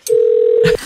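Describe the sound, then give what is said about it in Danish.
A single steady electronic beep from the film character Katrine's answering machine, heard in the film's opening montage, held at one pitch for most of a second, loud, then cut off with a faint click and rustle. “hvor vi lytter til Katrines telefonsvarer.”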